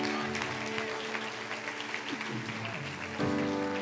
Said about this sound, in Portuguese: Vamos aplaudir a Deus.